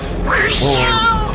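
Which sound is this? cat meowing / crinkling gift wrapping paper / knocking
cat meowing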